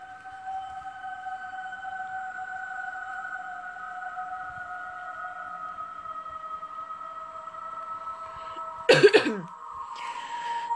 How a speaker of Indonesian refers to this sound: Oke, okay, langsung aja mulai. Aduh, batuk aja.